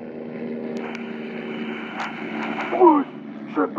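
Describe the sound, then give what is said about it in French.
Drone propellers whir with a steady, buzzing hum that holds throughout, even in level, while brief vocal sounds break in near the end; a scene from the show Pamela Target. “Qu'est-ce que vous fichez là-haut sur un drone Je peux tracer Peter Pompon avec le détecteur de mouvement longue portée de mon drone.”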